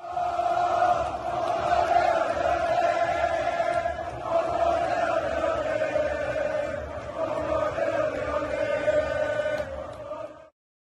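A large crowd of Botafogo football fans, led by a chant leader at the club's last match of the previous year, chants in unison, a loud sustained roar of many voices holding a steady tone for about ten seconds before cutting off abruptly.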